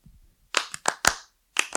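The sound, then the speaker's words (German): Sharp hand claps in a syncopated flamenco-style rhythm: three quick bright claps, a short pause, then two more, each crisp and fairly loud with no one speaking. “Und du kannst auch zum Beispiel, sag mal, sehe ich das jetzt richtig, weil ich jetzt klatsche, ist es Tanguio?”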